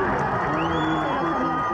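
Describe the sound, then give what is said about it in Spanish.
A loud crowd at an interschool cadets' football final cheers a goalkeeper's save and shouts in a dense, continuous roar, with high whoops and rising voices cutting through the steady wall of excited noise. “La euforia que ustedes escuchan la generó en una final de fútbol interescuelas de cadetes”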